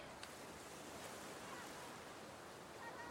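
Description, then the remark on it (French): A steady, soft wash of surf rolls on without a break on a fine-sand beach at Palm Beach, a diffuse hiss of breaking water on a shore, fairly quiet, with no voices. “Tandis qu'elle contemple les reflets du soleil dans les vagues”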